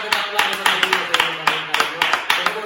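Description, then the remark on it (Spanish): A group applauds with sharp, rhythmic claps landing at a quick, steady beat over a dense wash of hand noise, loud throughout, with some voices mixed in underneath. “¡Aplausos!”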